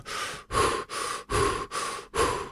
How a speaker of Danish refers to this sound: Hvis vi nu så fat i hyperventilering, så hænger det lidt sammen med det, fordi hyperventileringen først og fremmest, det er at trække vejret mere, end man har brug for. Altså et par hurtige vejrtrækninger sådan her